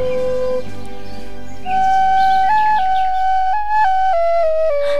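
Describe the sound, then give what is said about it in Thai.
A Thai pi pipe plays a slow tune of long, held reedy notes that step up and down in pitch, clear and fairly loud with no voices. “ในเวลานั้นคนเลี้ยงแกะและสุนัขเฝ้าแกะที่กำลังมองหาลูกแกะที่หายไป ก็ได้ยินเสียงปี่พวกเขาจึงได้วิ่งเข้าไปตามหาเสียง”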